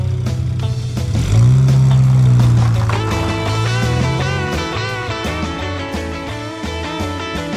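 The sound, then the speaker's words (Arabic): The powerful 409 V8 engine of an Impala convertible driven by Bunkie Knudsen roars up loudly, its deep rumble swelling after a second and holding steady, with rhythmic music playing over it. “وبينما يقود نوتسن سيارة إمبالا المكشوفة يزأر محركها من نوع 409 V8 القوي إنه الصوت المحبب لهذا الجيل بل يكاد أن يكون شعارهم الرسمي”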